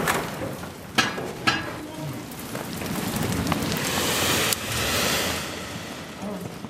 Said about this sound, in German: Die glühende Bronze schießt durch die Kanäle, die Formen füllen sich, die Windpfeifen fauchen